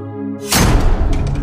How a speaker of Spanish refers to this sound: ¿Qué? ¿Quién cerró la puerta? ¿Qué pasa, hermana? ¡Abran la puerta! ¡Déjenos salir! ¡Abran la puerta! Estaban encerrados no existía una cerradura o perilla por dentro.